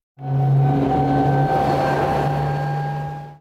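A Candela electric hydrofoil boat runs with a steady electric whine, sustained tonal hums and a soft rushing wash underneath, holding an even level throughout before cutting off.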